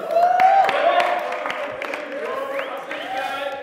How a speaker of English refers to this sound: Uh, if you don't know me, sounds like some of you know me or just clapping because it's fun.